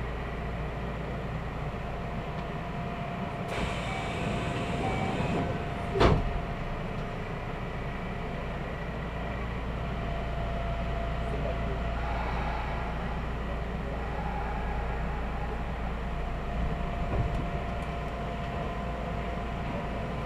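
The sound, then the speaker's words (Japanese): A Kintetsu electric commuter train in Japan departs Ise-Wakamatsu and runs toward Shiroko with a steady low rumble and a faint motor whine, broken by a single sharp clunk partway through; no one speaks. “【音の旅】近鉄 伊勢若松（特急通過待ち）→白子（特急通過待ち・普通乗り換え）→千里”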